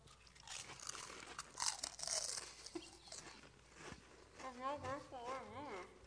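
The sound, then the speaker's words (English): Loud crunching of flavored snack chips (pizza, cheddar and buffalo ranch flavors) in irregular bursts for several seconds, followed by a person making wavering vocal sounds while still chewing. “That was very crunchy.”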